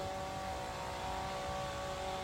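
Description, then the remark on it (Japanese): A gasoline leaf blower in Los Angeles blowing cut lawn grass into one pile, its engine droning steadily and loudly, a high buzzing whine holding a constant pitch throughout with no pauses or voices. “こちらも名物ロサンゼルスではよく聞く芝刈り機もしくはリーフブロワー刈った芝生をガソリンで吹き飛ばすんですよ1箇所にまとめるために”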